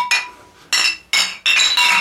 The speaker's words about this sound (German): Ich würde gern offen anstoßen. Wir stoßen an. Feinsten ja. Champagner. Oder anderen.